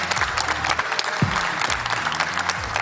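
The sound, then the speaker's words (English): Steady audience applause, dense overlapping clapping that stays loud and even throughout, with faint voices mixed into the crowd noise; the audience applauds themselves for participating in an evening discussion session. “And Give yourself a round Thanks. of applause.”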